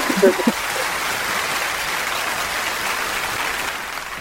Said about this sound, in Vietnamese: Những tràng pháo tay rất dài và rất nhiều